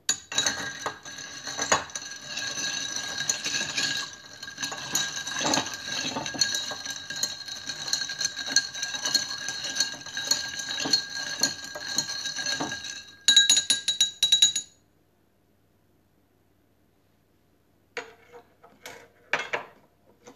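A cocktail with sweet red vermouth is stirred with ice in a mixing glass until well chilled: steady rattling and clinking for about thirteen seconds, then a brief louder clatter, a pause, and a few final light clinks.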